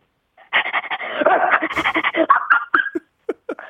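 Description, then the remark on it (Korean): A child with a hoarse, worn voice imitates an excited, happy dog with a fast run of yips, whimpers and panting barks lasting a few seconds, ending in a few short separate yelps, fairly loud. “강아지 기분 좋을 때 한번 해보겠습니다.”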